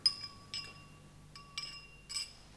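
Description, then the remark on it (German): Glasses clink together several times in quick succession in a toast, each touch leaving a bright, lingering ring. The clinks are fairly soft, with no voices. “Äh, Prost.”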